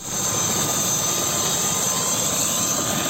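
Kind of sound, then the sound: vehicle, helicopter taking off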